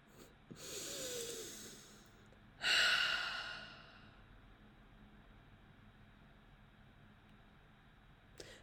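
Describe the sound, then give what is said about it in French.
A single deep breath taken to calm down: a long airy inhale, then a louder, rushing exhale that fades into quiet room tone. No one speaks. “D'ailleurs, je pense qu'on va prendre une grande respiration pour juste euh, calmer.”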